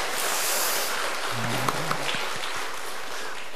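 An audience applauds together, a steady, dense wash of clapping that fills the whole clip at an even level, with a faint low hum briefly showing beneath it.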